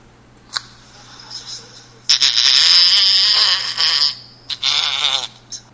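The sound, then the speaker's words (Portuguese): A loud, raspy fart sound in a voice message sent as a reply by a real-estate agency contact: a long, sputtering blast of about two seconds, then a shorter second burst, with a few faint clicks before and a low hum throughout. “Você tá suando, ela mandou um peido.”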